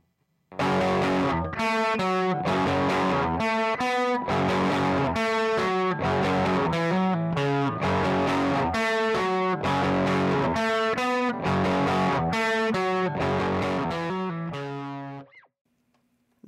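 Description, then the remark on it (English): A Jaguar electric guitar driven through a JHS Superbolt overdrive pedal, a Supro simulator, strums a steady, rhythmic chord riff for about fifteen seconds, loud and gritty with no talking, before a final chord rings out and quickly fades. “First up, here's the Superbolt.”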